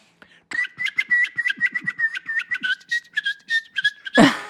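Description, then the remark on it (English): A person whistles to communicate with birds: a steady tone broken into a rapid series of chirpy, bird-like trills for several seconds, ending with a brief breathy burst. “I wanted to be able to communicate with birds. I managed to learn to whistle, so I can I can actually tell you how I whistle now.”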